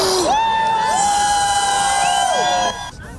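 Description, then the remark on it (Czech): A large crowd of Trump supporters, protesting the presidential election result in the corridors of the Capitol, cheers and shouts loudly and continuously, with a sustained high whoop or yell rising above the din before the noise drops off abruptly near the end. “Dav nespokojený s výsledkem voleb se po chodbách a jednacích místnostech kapitolu pohyboval čtyři hodiny.”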